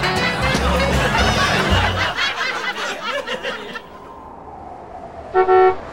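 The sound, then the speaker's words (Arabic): A taxi horn gives one short, loud, bright honk near the end. Before it come several seconds of busy street noise with voices and laughter over a low engine rumble. “تاكسي”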